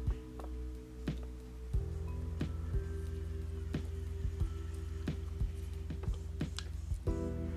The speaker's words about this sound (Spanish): Voy a tomar un vaso de agua porque otra vez mi garganta ahí me da el, me da la alarma, me da el, el pique ahí de, hey, ya necesito agüita. Pues allá va mi agua, así que me disculpa por eso.